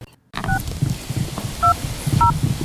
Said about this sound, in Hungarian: Nyomkodja a telefonomat. Uh-huh. Úgy, hogy oda se néz. Fogadni mernék, hogy fölhív valakit.